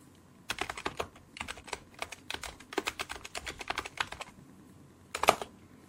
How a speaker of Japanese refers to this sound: もうね、何をタイピングしてるか、よくわかりません。わからないということだけがわかる。